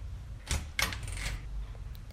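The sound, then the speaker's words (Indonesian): A few sharp knocks on a door, fairly loud, coming in a quick uneven cluster over a low steady background hum, with no one speaking. “Gak tau, orang iseng banget dari kemarin ngetok pintu terus pas gue buka gak ada siapa-siapa”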